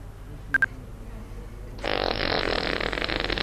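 A novelty mobile phone ringtone: two quick electronic beeps, then a loud, raspy, sustained fart-like blare that carries on until the end, with no talking.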